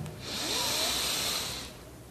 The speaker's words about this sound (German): Wir nehmen einen tiefen Atemzug und atmen ein.